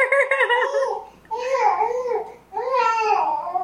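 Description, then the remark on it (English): A baby girl babbles and laughs in three bursts of high, bright vocalizing, one sounding like "mom", with short pauses between them and no adult speech. “It sounded like she just said mom.”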